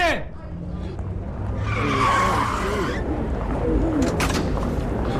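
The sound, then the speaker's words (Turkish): A hailed taxi's tires screech loudly for about a second as it skids to a halt, followed by engine rumble and faint street noise with some indistinct voices. “Hemen bir taksi, bir taksi. Hemen. Taksi çağırın. Taksi. Hey taksi.”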